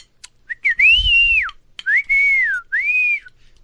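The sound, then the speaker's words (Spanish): A loud human whistle call in three long, rising-and-falling tones, the second and third separated by short pauses, ringing out clearly with no talking; whistling used to communicate on a ranch instead of phones. “la neta, sin payasadas, no ocupamos iPhone, ni teléfonos, güey. ¿Y por qué no? Porque allá gritos, güey, o chiflidos.”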